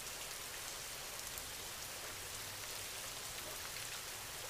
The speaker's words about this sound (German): Und nimm den Rhythmus der Regentropfen wahr.